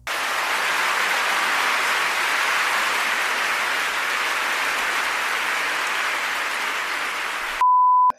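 A dense, steady round of applause from many hands welcoming a guest science communicator rolls on for about seven seconds, then cuts abruptly into a short, pure electronic beep.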